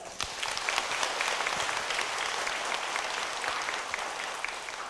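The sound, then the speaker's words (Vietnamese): A sustained round of applause from a sizable Buddhist audience pledging commitment to organ donation, many hands clapping densely and steadily at a fairly even level for several seconds, with no speech over it. “qua bố thí nội tài thì mong quý vị hãy phát tâm lập cái việc đó bằng một trang vỗ tay để cam kết”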